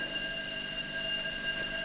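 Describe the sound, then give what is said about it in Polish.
A school bell marking the start of the break rings without a break, a steady, loud, high-pitched metallic buzzing that holds the same tone from start to finish, with no voices heard. “Poczekamy, aż minie dzwonek.”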